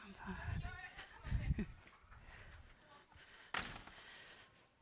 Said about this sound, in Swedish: Vi ska gå och stänga en dörr här också tror jag, så slipper vi höra dem lika mycket när de pratar här.